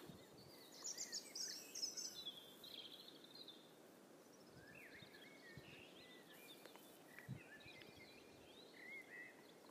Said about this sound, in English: So uh, I'm going to go for a little stroll and see what I can hear. Already the birds are singing, which is great.